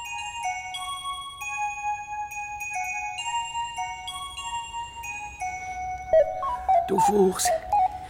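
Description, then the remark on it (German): A phone number is dialed to ask directory enquiries for a number: a run of steady electronic keypad tones, each held briefly and shifting in pitch, ending in a short burst of warbling, chirpy telephone-line sounds. “Sie, äh, ich frage gerade die Nummer bei der Auskunft, hä?”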